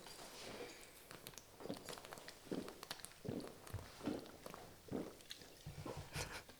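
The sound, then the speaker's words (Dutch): Someone drinks water, swallowing in a steady series of soft gulps roughly every second, with no talking. “Ga eens wat water drinken.”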